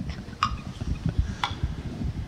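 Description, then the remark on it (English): A clock ticks steadily, two crisp ticks about a second apart standing out clearly over a low, muffled rumbling background. “Oh, it's a clock.”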